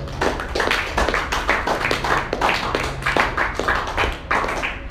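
Steady, brisk hand clapping fills the whole stretch, sharp claps coming several per second in a loose, uneven rhythm, fairly loud, with no talking over it.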